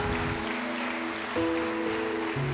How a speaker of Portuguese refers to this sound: Dê um aplauso ao Senhor, fica de pé no seu lugar.